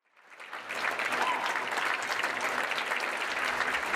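Applause from a crowd swells up over the first second, then holds as a steady, dense wash of clapping for several seconds with no voices over it.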